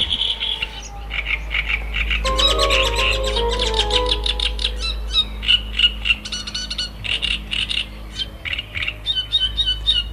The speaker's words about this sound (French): et on n'a pas idée qu'en fait le, son puisse provenir d'un si petit oiseau. Euh, donc c'est une espèce polygyne, donc c'est un mâle en général qui a plusieurs femelles. Donc euh, il, défend assez fortement son, territoire et son, son autre femelle.